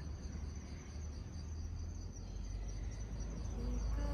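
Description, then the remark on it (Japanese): Autumn insects, crickets, chirp steadily outdoors in autumn, a dense, continuous high-pitched trilling layered over a low rumble of ambient background noise, with no voices present. “え虫の声も聞こえるでしょうかが過ぎて過ごしやすい秋虫の声を聞きながら今日は外でこのポッドキャストをお送りしています。”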